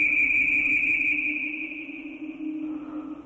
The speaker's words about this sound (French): Un son strident, puis un sifflement lui firent mal aux oreilles.